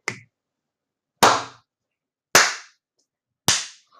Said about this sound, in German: Und der zweite Frosch klatscht mal mit den Fäusten.